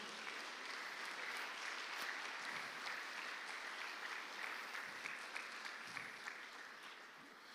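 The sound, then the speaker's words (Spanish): An audience at a church service applauds steadily in praise of God, a dense wash of many hands clapping at an even, sustained level throughout without pause, with no voices rising above it. “Dele palmas al Rey de la Gloria, pues.”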